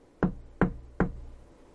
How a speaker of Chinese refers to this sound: 我深吸了一口气，轻轻的敲了敲门